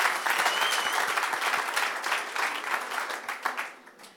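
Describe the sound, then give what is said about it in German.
An audience in Germany applauds the attendee who travelled farthest, from Münster. Many hands clap in a dense, continuous patter that holds at a moderate level before tapering off toward the end. No voices are heard. “Und damit ihr wisst, wem ihr applaudiert”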